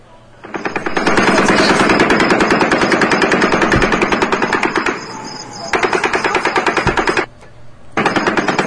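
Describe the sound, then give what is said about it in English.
Rapid automatic gunfire rattles in long sustained bursts, loud and echoing, with a brief pause and then more bursts of fast repeated shots, fired down into a parking lot from the 30th floor of a hotel. “If the reports are accurate that the shooter was up on the 30th floor of Mandalay Bay, they would have been on the east side of the hotel shooting down into this parking lot.”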